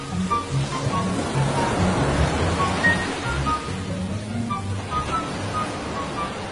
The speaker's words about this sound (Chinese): 大海并不平静，一场暴风雨开始了，海浪越来越大。